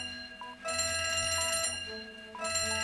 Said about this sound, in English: As you can probably hear right now, we have a fire alarm going off.